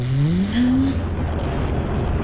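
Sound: engine running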